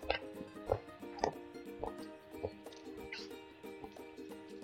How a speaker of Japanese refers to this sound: 咀嚼音が入ってたらごめんなさい。